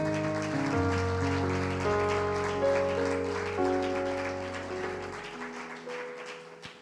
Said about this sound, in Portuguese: Glória a Deus. Aplauda o Senhor porque Ele é Rei.